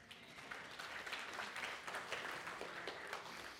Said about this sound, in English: Y'all give my brother a round of applause.